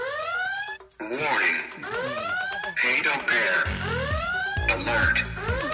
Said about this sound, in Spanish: Eh, vamos, que suene la alarma.